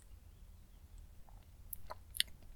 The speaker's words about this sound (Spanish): Pausa para trago de café.